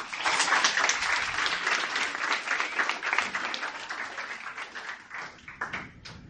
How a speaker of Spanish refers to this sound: Un aplauso a Jesucristo.